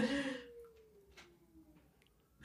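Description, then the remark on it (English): A faint, drawn-out dog howl from outside the house, slowly sliding down in pitch and sounding muffled, after a brief burst of noise at the start. “For all of you at home that did not hear that very faint howl, there was a very faint howl outside the house.”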